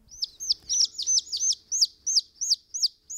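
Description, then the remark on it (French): A newly hatched pigeon chick chirps over and over in a steady run of high, thin peeping calls, about three per second, clear with no talking. “Mais que vais-je faire de cet oisillon Il ne peut pas vivre là, sur mon front.”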